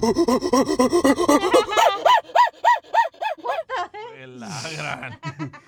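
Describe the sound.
A man imitates a gorilla with his voice, making a fast, rhythmic run of loud, pitched hoots and grunts that rise and fall, then trail into breathy, rasping huffs.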